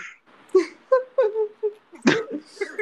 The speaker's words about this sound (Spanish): Ya llorando la mujer.